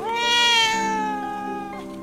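A single drawn-out kitten meow, high-pitched and fairly loud, holding a steady tone for about two seconds before tapering off at the end, with no other sounds around it.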